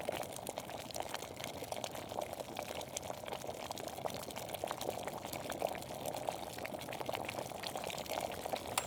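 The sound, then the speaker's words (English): Water boils for tea at a steady rolling bubble, a dense crackling hiss with many small pops, continuous throughout with no voices. “From the sound of porcelain mugs to water boiling”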